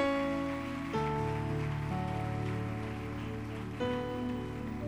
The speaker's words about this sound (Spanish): Dale esas palmas de una vez por todas al Maestro.